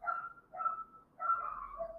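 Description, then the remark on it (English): A dog barks in a few quick bursts, the last one stretched into a longer, whiny yelp, with no one talking. “Maybe that dog that's barking in the background.”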